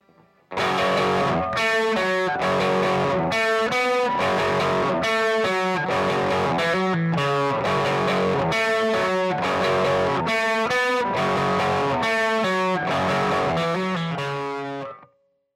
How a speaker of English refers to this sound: However, let's take a listen to what the Blues Driver sounds like pushing the front of our two amps together.